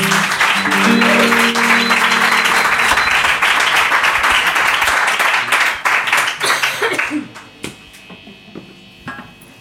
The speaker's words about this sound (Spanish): Venga, pues con este aplauso retoman en el set lunero.